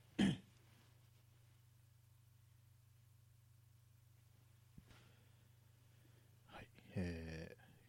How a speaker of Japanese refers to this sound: ちょっと咳払い失礼します。